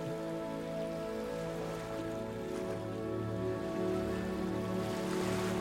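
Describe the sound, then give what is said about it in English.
A steady, continuous wash of water waves, soft and even in loudness, blended with a sustained tonal drone. No one speaks. “As you continue to listen to the sound of the water, allow the motion of the waves to bring you gently back to your permanent environment.”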